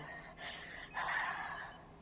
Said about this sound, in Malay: Tak semena-mena ibu nazak. Nafasnya kencang. Tercungap-cungap dia.